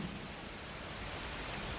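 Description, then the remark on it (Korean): Steady rain hisses evenly throughout, with a low, soft rumble of distant thunder rolling underneath. No voices, just the continuous wash of rainfall. “멀리 천둥 소리가 무겁고 은은하게 다가와 우리를 공명하고 지나갔다.”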